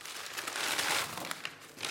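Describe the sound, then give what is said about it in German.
Paper bags crinkle and rustle continuously, with sharper crackles mixed into a steady, busy rustling as a Franciscan friar packs packaged food into paper bags in a small, rather old monastery kitchen; no voices. “Vor ihm liegen Papiertüten und abgepackte Lebensmittel.”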